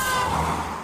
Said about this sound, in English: Probably would have been better if I wasn't sitting in a car. In a busy street.